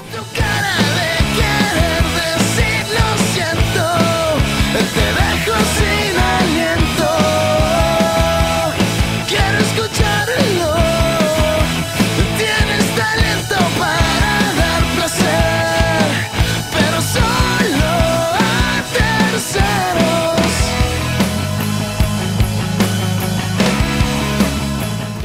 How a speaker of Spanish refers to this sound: canción tan depresiva, ¿verdad?